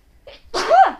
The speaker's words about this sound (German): Gesundheit.